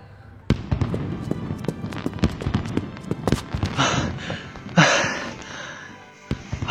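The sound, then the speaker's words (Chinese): A fireworks show going off downstairs from the building: a rapid, irregular barrage of sharp bangs and pops, with louder crackling bursts and hissing swells partway through, continuing without pause and with no talking. “楼下的烟花秀开始啦，我去看看还有没有好位子。”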